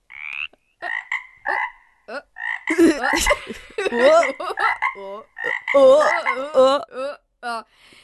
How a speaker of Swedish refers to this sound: Kan du gissa djurljudet till exempel? Eh, jag är ganska säker på att det där var en groda. Ja, korrekt, korrekt.